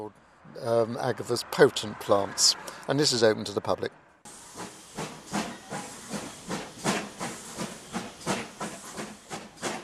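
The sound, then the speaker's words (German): A historic steam train slowly pulls away from the small Paynton station, its chuffs and hissing bursts of steam settling into a steady rhythm, after a few seconds of voices at the start. “Langsam setzt sich der historische Zug im kleinen Bahnhof Paynton in Bewegung.”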